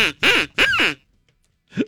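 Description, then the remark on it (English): Three loud, nasal quacks from a duck call named The Terrible Quack, two long harsh blasts close together followed after a pause by a shorter, softer quack. “Let the duck quack.”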